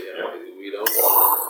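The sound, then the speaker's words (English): A voice mimics an explosion, standing for a mind exploding: a rising, throaty buildup that breaks into a sudden breathy burst, then trails off in a hissing rumble. It is fairly loud and brief, with no words. “That was the sound of my mind exploding, by the way, because we don't have video on this audio podcast.”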